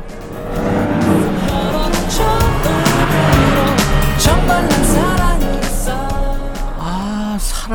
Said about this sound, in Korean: 옆에 차가 지나갑니다. 곧 노랫소리 들릴 거예요. 옆 차에서 듣고 있는 노래 뭘까요? 들어보세요.